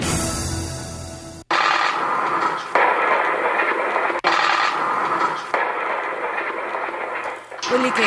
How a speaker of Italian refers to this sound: sentite sono gli effetti, gli spari, le sirene dei momenti concitati del doppio blitz quasi contemporaneo scattato ieri in Francia intorno alle 17.